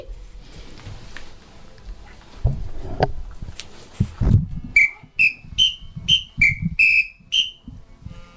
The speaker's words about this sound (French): Je crois que cette fois-ci, c'est... Un, sifflet. C'est le petit sifflet.